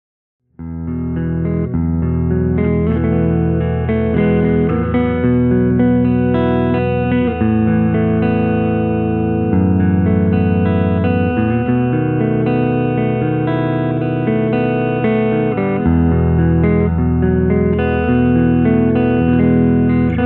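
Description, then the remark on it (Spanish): A clean Les Paul electric guitar played on the neck pickup, with warm, rounded chords and notes ringing out steadily for about twenty seconds at an even volume, no voices. “Eh, en este primer fragmento es con la pastilla del mástil y en sonido limpio.”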